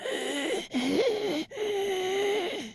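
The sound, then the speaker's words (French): A voice imitates a creature's wheezing, rasping breath in three long strained pulls, separated by brief gaps, fairly loud with a whistling, pitched quality. “T'entends sa respiration qui cille.”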